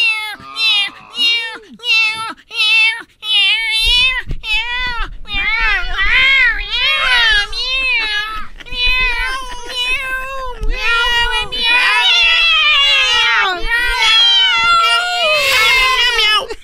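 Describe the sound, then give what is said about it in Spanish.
Several cats in Istanbul, Turkey, meow loudly and insistently, starting with short separate cries, then overlapping into a nearly continuous chorus of drawn-out, wavering meows over a low background rumble. “En la número 9, la ciudad donde gobiernan los gatos.”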